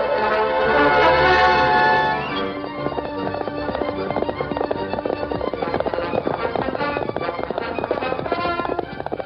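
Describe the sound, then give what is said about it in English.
The Lone Ranger's horse Silver gallops hard at sunset, chasing an outlaw, its hoofbeats drumming in a fast, steady, loud rhythm, after a brief swell of sustained tones at the start. “urged Silver forward at breakneck speed”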